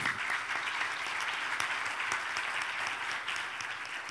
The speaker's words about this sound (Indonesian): Yang mengerti sampai di sini berikan tepuk tangan dulu bagi Tuhan itu.